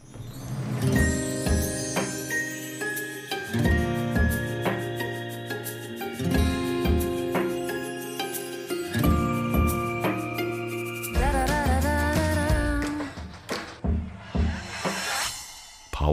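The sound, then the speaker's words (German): A song plays clearly and fairly loud, with a steady rhythmic beat, sustained melodic tones, and a wavering vibrato line near the end, with no one talking over it. “Und da hören wir noch ein Stück. Ein Hauch von Applaus.”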